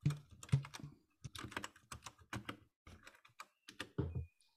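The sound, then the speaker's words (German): A stretched rubber band is plucked again and again, giving a quick run of short, snappy twangs in an irregular rhythm, with no voices. “Gummi, wo ich spanne und spiele wie eine Wasserseite.”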